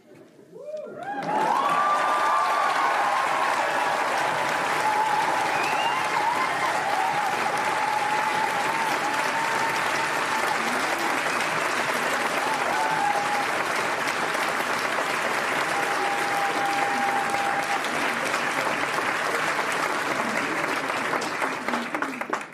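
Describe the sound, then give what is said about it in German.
Sustained, loud audience applause for a performer spreading his legs apart fills the whole stretch, a dense steady wash of clapping with a few whoops and cheers rising over it, continuing without a break for about twenty seconds. “Ich glaube, ich habe noch nie so viel Applaus bekommen dafür, dass ich meine Beine auseinander gemacht habe.”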